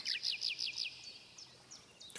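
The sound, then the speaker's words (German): A nightingale sings a quick run of five bright, repeated whistling phrases, then trails off into softer, scattered notes. Clear, with no voices. “Doch als sie den Gesang der Nachtigall hörten, sagten sie alle, das ist wirklich das Schönste.”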